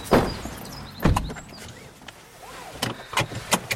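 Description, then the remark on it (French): A car door slams with a heavy thunk, followed by a second thud and a few quicker clunks, over a faint low rumble from an old diesel car. No one speaks. “Ah, donc là, vous avez la vieille voiture, la diesel, qui va partir euh, bientôt.”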